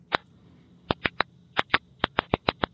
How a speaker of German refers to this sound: Also so schreien Tomaten, wenn sie zum Beispiel nicht genügend Wasser kriegen. Klingt, als wären sie ziemlich sauer.